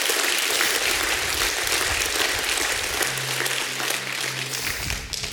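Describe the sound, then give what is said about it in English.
An audience claps hands in praise to God during a sermon, sustained dense applause for about five seconds, many overlapping claps blending into a steady roar, with a low organ-like tone sounding beneath in the later part. “Give God a hand clap for praise.”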